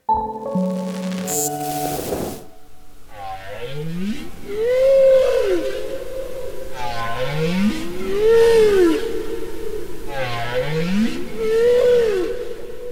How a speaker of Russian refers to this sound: Сейчас вы слышите песни гренландского кита.